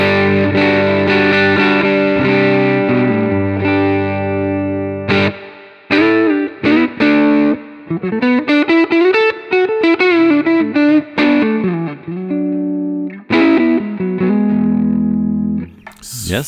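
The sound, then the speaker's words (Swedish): An electric guitar on its neck pickup plays sustained distorted chords, then a string of shorter stabs and a melodic run, warm and full-bodied with a thick low end. “Och halsläget.”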